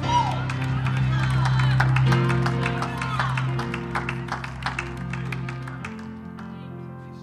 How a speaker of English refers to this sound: Give the Lord a hand clap and a shout before you're seated.